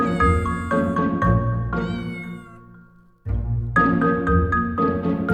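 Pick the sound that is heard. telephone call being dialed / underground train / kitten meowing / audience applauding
kitten meowing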